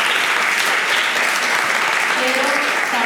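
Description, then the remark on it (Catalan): A live audience at a live show applauds steadily on request, a dense wash of many hands clapping, with a faint voice or two surfacing briefly near the end. “Un aplaudiment, per favor.”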